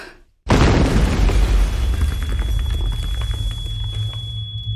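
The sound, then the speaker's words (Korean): After a brief hush, a bomb blast bursts in loud and sudden, then settles into a heavy, sustained rumble with scattered crackles and a thin, steady high-pitched ringing tone, a ringing in the ears, running underneath. “폭탄이 터지는 순간 모든 게 무너진 것이다.”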